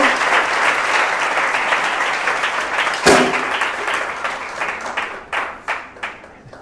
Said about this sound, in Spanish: Den un aplauso al Señor, aleluya. Amén.